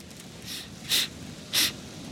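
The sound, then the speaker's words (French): A pirate captain on the deck of his ship sniffs the air: a faint intake followed by two sharper, breathy sniffs spaced about half a second apart, with no talking over a quiet low rumble. “Sur le pont de son navire, le capitaine, chef des pirates à l'énorme barbe noire épineuse, hume l'air.”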